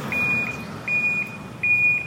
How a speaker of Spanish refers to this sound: Aquí está un auto dando reversa.